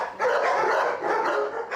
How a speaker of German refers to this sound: Wer bellt da? Mein Hund. Jetzt gerade darf er in beide Büros.